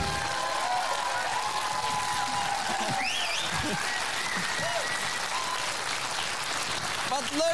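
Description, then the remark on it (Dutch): Sustained applause from a live audience welcoming arriving guest Claudia de Breij fills the whole stretch, dense and steady, with faint cheers and whoops rising above the clapping and indistinct voices mixed in. “Laat je horen voor Claudia de Breij.”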